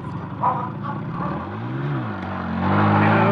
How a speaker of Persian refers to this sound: ادگار شروع به دور زدن کرد که ناگهان موتور از جاده منحرف شد